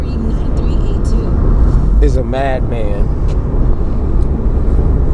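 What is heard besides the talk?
car driving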